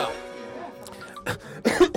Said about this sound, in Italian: oh Gesù, proprio mentre mi accendevo il microfono mi è venuta la tosse